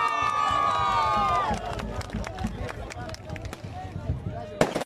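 An audience applauds a COFECAI executive introduced to speak: a loud drawn-out cheer rises over the crowd at the start, then fades into a steady patter of scattered clapping, ending with a sharp burst.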